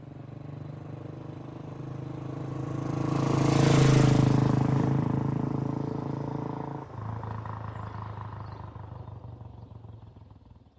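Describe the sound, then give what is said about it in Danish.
A motorcycle engine rumbles, swelling to a loud, throaty roar before settling back into a steady, lower drone with a sudden shift in tone. No one speaks. “Og så begynder han at køre motorcykel.”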